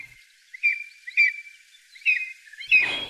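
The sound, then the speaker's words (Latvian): A lesser spotted eagle, a fairly common bird in Latvia, gives four sharp, high yelping calls near its nest at uneven intervals, loud, a bit like a small dog's bark, with the last call harsher and noisier. “Balss Līgstas rajonā trokšņains spalks kjip, paviršā salīdzinājumā maza sunīša riešana.”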